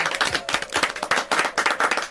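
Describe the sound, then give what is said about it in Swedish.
A burst of crowd applause played as a sound effect, many hands clapping in a dense, steady patter that stays loud for a couple of seconds with no talking over it. “Du skulle få en applåd.”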